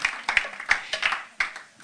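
An audience applauds, a steady crackle of many hands clapping with a few sharper, louder claps standing out irregularly. No one speaks over it.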